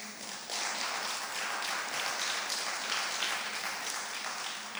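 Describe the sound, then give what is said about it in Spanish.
A crowd breaks into sustained applause honoring the pastors of the house, many hands clapping in a dense, steady roar that starts abruptly and holds at an even level for several seconds without any speech. “¿Por qué no damos un aplauso?”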